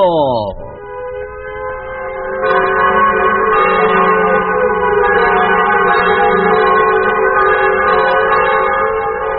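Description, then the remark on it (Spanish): The bells of the parish church in Heredia, Costa Rica, ring loudly and continuously to welcome a football team after its 2-1 victory, their overlapping tones blending into a dense, sustained clangor that swells after a brief falling tone at the start. “El público se desbordó las campanas de la iglesia parroquial recibieron a los héroes, integrantes del Club Sport después de haber derrotado dos goles por uno al Banfield de Argentina.”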